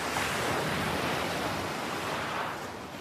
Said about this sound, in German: Du hörst das sanfte Rauschen der Wellen, während sie über den Strand und deine Füße sanft hinüberrollen.